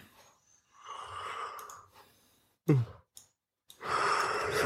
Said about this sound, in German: Ach so, das habe ich nicht gemerkt, dass du gähnst. Oh, das war doch das total professionelle ah, Gähnen. Der hat extra für geübt.